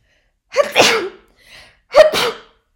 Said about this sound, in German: Entschuldigung. Für diese Niesaktion, ich habe leider Pollenallergie und ich kann es nicht vermeiden zu niesen. Jetzt habt ihr das jedenfalls gehört.